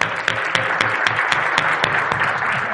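An audience applauds steadily as people are called up on stage for a fireside chat, many hands clapping in a dense, continuous wash with faint rhythmic accents, fairly loud and filling the whole moment.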